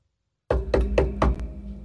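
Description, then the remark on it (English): Four firm knocks on a door in a quick, even rhythm, fairly loud, with a low resonant thud behind each rap and no voices. “We're going door to door”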